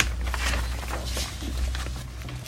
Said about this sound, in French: Flip, flap, flip, flap. Mais que se passe-t-il dehors Souris entend une voix et des bruits de pas.